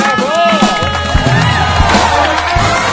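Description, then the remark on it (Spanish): A crowd claps and cheers loudly for a trio of participants, a dense, continuous wash of applause with scattered whoops and shouts rising over it, filling the space for a few seconds. “Un trío, trío, Que suene, que suene fuerte el aplauso para el trío, por favor.”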